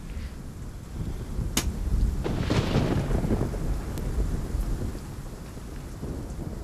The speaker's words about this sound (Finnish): Kunnon kesäukkonen. Tämän äänityspaikasta ei ole sen tarkempaa tietoa, mutta sovitaan, että tämä on äänitetty Suomessa.